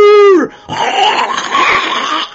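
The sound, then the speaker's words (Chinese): A voice imitates the moo of a big cow as it lifts its head: one drawn-out, harmonic low call that drops in pitch and cuts off, followed by a steady, rough, hissing burst of noise. “小孩这会儿啊，终于算是缓过劲儿了，一身冷汗，浑身都软了，一抱这大牛脖子，就见这大牛一抬头，哞”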